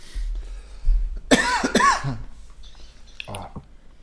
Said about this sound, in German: Ja, war, war, Zeit der Hustenanfälle im Podcast. War richtig schlimm.